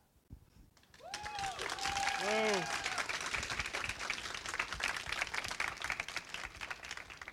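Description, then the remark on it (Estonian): A big round of audience applause starts after a second and carries on steadily to the end, dense clapping from a crowd with a few whoops and cheers rising over it early on. “veel kord äh, suur aplaus äh, neile kokkuvõtvalt”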